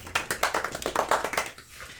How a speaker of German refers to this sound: Und äh, Applaus brandet auf